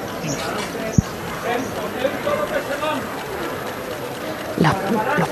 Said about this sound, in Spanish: Estás escuchando los flashes que no paran. Aquí todo esto son cámaras, flashes, teléfonos móviles.